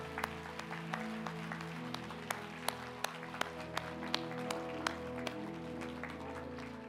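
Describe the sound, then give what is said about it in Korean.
A church audience at Sarang Community Church applauds to encourage its teachers, a dense, steady wash of clapping lasting about seven seconds, with sharper individual claps popping out above the crowd and a low sustained hum beneath. “한번 큰 박수로 한번 격려해 주시죠.”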